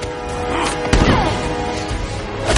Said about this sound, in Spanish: La golpea en la cara y la tira al suelo.